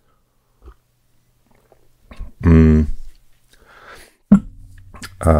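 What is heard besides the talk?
sipping tea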